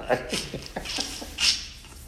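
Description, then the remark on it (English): A dog moves around with a quick, regular patter of soft paw steps on a hard floor, a bit of low background murmur underneath, then a brief louder rustle toward the end. “Don't be there, dog.”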